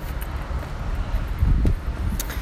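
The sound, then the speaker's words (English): Steady outdoor street noise as cars pass someone walking to the train, with a low rumble that swells as a vehicle passes midway through, wind buffeting the microphone, and faint scuffs of footsteps while walking. “I hope you can hear me over the cars passing me as I'm walking to the train.”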